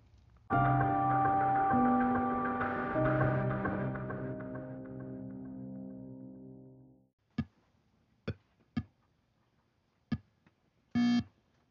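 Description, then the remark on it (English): A loud, buzzy electronic tone from an early video game, with stepped pitch changes, holds for several seconds and fades, followed by a handful of short, sharp blips and one brief rapid burst. “Not only is that the sound of an early video game, it's also the emerging heartbeat of an entire industry.”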